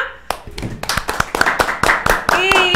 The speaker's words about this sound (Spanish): Aplauso para estas hermosas mujeres.